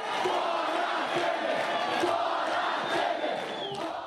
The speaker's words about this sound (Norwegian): Ut med Temer, roper et tusentall demonstranter under en markering her i Rio de Janeiro.